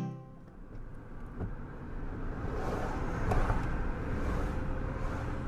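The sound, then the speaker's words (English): Harbour ambience with boats: a steady low engine rumble and a broad wash of wind and water noise that swells slightly partway through, with no one speaking. “We're at the harbour”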